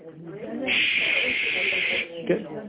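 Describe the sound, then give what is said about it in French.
A steady, bright static hiss from a television switched on with no channel tuned in swells in and holds for over a second, surrounded by bits of speech before and after. “Quand vous allumez une télé et qu'il n'y a pas encore de chaîne branchée, vous voyez comme de la...”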